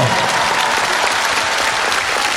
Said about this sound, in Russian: Огромные молодцы, друзья. Давайте поаплодируем этому парню.